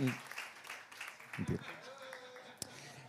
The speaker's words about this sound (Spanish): Vamos a darle un aplauso fuerte al modelo.